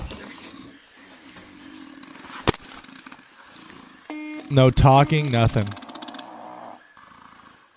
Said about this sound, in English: Is he snoring? Yeah, he's snoring because he's knocked the fuck out. He's snoring because he's knocked the well, fuck maybe out.